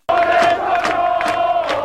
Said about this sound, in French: De mémoire de Nantais, on n'avait jamais connu ça. C'est une foule en liesse qui accueille ses favoris. Les Nantais prennent conscience qu'ils sont les maîtres du championnat.